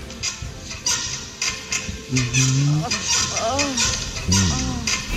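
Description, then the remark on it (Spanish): Squeaky creaking from a car's rear suspension, drawn-out groaning tones almost like mooing, mixed with a few dull knocks as it bounces, with background noise. “ese es el sonido de la suspensión trasera.”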